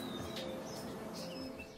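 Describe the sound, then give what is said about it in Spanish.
Soft, low mourning dove cooing sits among other birds, with brief high chirps and tweets scattered over a steady outdoor background, with no one talking. “Aquí tenemos búhos, este, gavilanes, águilas, sí, tenemos infinidad de pájaros, muchos de ellos tropicales, ¿no? Huilotas de la costa de Guerrero, eh, aquí tenemos muchas palomas, sí, básicamente aves, aves, ¿no?”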